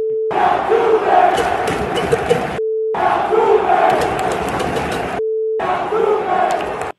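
A loud, dense stadium crowd chants and boos in continuous roaring waves, interrupted twice by brief gaps filled with a steady electronic beep tone.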